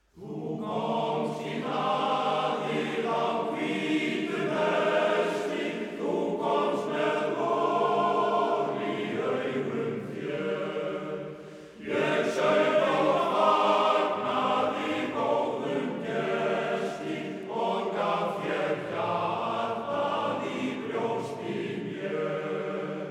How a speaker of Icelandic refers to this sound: Karlakórin stefnir, söng lag við texta Daví Stefánssonar, Þú komst í hlaðið. Lag sem er einmitt ósjaldan sungið í íslenskum réttum.